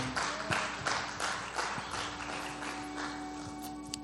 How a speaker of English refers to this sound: Can we give the Lord a great round of applause for his word? Come on, somebody.